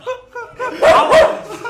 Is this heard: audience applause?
no